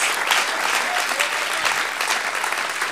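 An audience applauds the Lord steadily, many hands clapping in a dense, continuous wash of sound that stays loud and even throughout, with no voices standing out.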